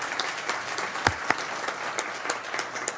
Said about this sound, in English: That was a fabulous selection. Please give them another round of applause.